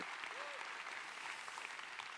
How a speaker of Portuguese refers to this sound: Quem crê, dê um aplauso bem forte ao Senhor. Bem forte, bem forte. Bem forte, aleluia. Oh! Se você crê, aplauda o Senhor Jesus.